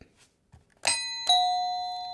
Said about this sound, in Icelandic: Lækirnir er mætti til leiks og hvernig hljómar bjallan ykkar?